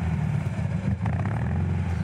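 A rough, clattery 50-year-old air-cooled car engine idles steadily and loudly, its low throbbing rhythm constant with a slight surge of revving near the middle. No one speaks.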